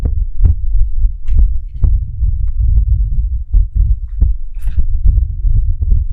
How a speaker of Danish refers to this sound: Ja, det, det er, det er altså lidt, det blæser.